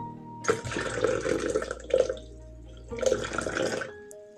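A small stream of water splashes and trickles in two short bursts separated by a brief pause, moderately loud with no voices.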